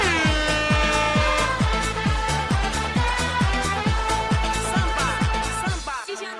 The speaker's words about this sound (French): Messieurs, j'ai dit que la folie avait commencé à 19h dimanche, j'ai fait une erreur, elle a commencé dans la nuit de jeudi à vendredi parce que les Brands ont gagné. Il fallait que je ressorte le jingle pour ça.